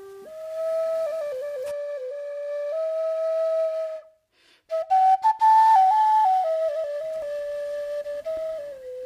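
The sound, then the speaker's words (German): A flute plays a slow melody of long, sustained notes that step up and down in pitch, with a brief pause partway through. It plays alone, with no voices. “Und auch die Flöten hörten auf zu sprechen. Man hörte nur noch ihre wunderschönen Töne.”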